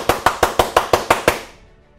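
audience clapping hands

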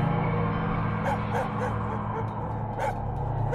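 dogs barking and howling

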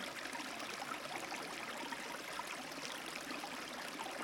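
flowing river stream

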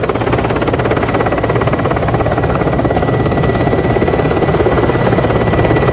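helicopter engine and rotor

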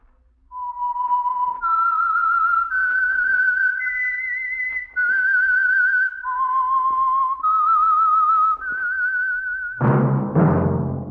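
whistled theme tune

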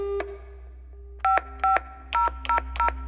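telephone keypad dialing tones

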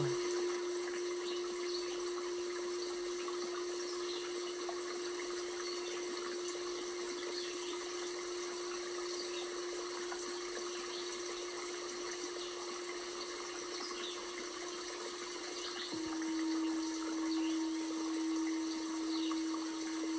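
flowing river water

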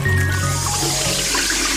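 water running

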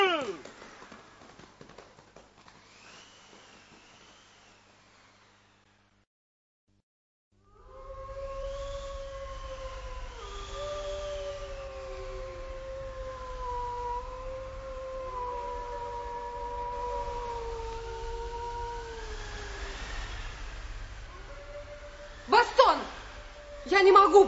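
wolves howling at night

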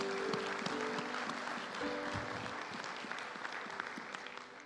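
audience applauding

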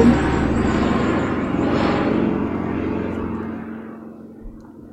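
airplane passing overhead

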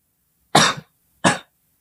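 coughing

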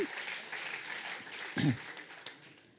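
audience clapping

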